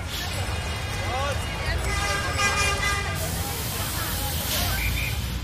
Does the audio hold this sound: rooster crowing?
no